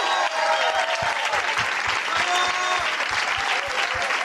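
A crowd bursts into loud, sustained applause, dense clapping filling the space steadily for several seconds, with faint cheering mixed in.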